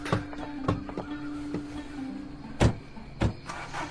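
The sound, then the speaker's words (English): A few sharp thuds and clunks as a truck door closes and latches catch, over a low, steady engine hum from the truck that runs throughout at moderate volume. “We rode in the front of the truck”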